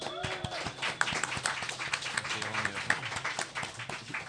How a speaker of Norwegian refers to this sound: Applaus.